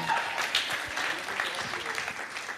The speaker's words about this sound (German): Vereinzelter Applaus, ja.